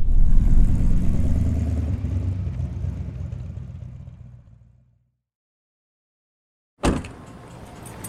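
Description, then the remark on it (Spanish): A car engine whirs steadily as the vehicle drives, automatically limited to no more than 50, its low rumble gradually fading to silence, then a sudden sharp burst of noise settles into a quieter hum. “ahora las multas te calibran el auto automáticamente. No puede ir a más de 50, ¿ves?”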